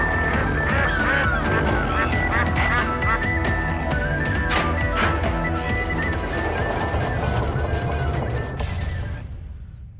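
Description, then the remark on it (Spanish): A dense, loud chorus of many ducks quacking and honking at once, overlapping continuously, fading slightly at the very end, with no talking. “Y el pleno concierto.”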